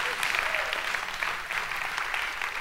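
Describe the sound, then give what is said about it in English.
A church audience applauds and cheers news that 101,000 has already been received toward a fundraising goal, a steady, dense wash of clapping that holds at an even level for the whole stretch, with scattered voices rising within it. “Yeah, you can cheer for something there.”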